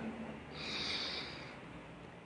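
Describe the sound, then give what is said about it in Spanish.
A long, airy breath drawn in slowly through the nose during a guided relaxation exercise, swelling softly over about a second before fading, fairly quiet with no talking. “Toma una inhalación profunda, por favor.”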